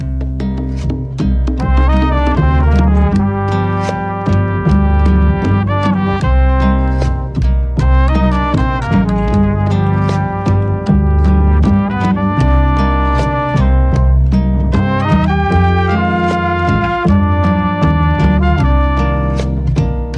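Film theme music plays on its own, a steady instrumental piece with sustained tonal layers and regular rhythmic accents, fairly loud and continuous throughout, with no voices.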